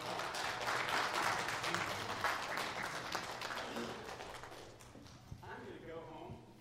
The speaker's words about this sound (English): And I'm going to assume that applause was for the awesome job I did and not for thank God he's done talking.